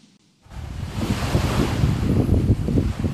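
Ocean waves and wind on a beach: after a brief quiet moment, a steady, loud wash of surf and gusting wind rushes in and continues, with no voices.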